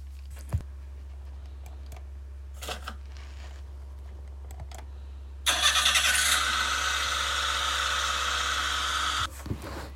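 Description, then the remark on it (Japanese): A few faint clicks and clunks, like a door and keys, then a HiAce van engine cranks and catches at about five seconds, running loud and steady before cutting off near the end. “磯山は秩序なく置かれたハイエースに乗り込んだ”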